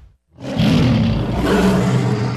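A lion roars once in a single loud, sustained, deep growl that swells after a brief moment of silence and rumbles on without pause. No one speaks.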